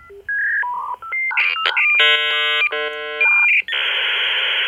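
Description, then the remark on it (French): A late-1990s 56K dial-up modem connecting: a quick string of dialing tones, then harsh multi-tone handshake screeches and warbles, ending in a steady hiss of static, loud with no talking. “À la fin des années 90, tout le monde utilise le bon vieux modem 56K.”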